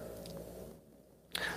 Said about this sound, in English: that's my dog snoring. Can you hear my dog snoring?